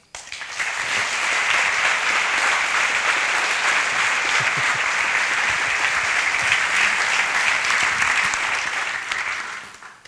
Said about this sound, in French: Merci d'applaudir